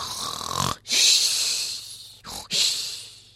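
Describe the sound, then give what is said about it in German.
A person loudly imitates snoring: three rough, wheezy breaths with a hissing, rattling rasp, each pulled in and pushed out, separated by brief pauses. “Ja, meinst du nicht, das Jesuskind wacht auf, wenn du so laut schnarchst?”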